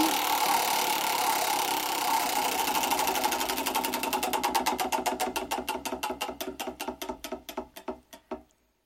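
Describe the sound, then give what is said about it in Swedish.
A spinning wheel clicks rapidly at first, a blur of ticks that gradually slow into distinct, evenly spaced clacks before stopping; fairly loud, with no voices. “Då snurrar vi då, är du beredd?”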